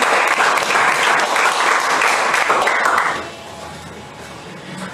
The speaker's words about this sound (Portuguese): Amém? Aplauda o Senhor, pode se assentar.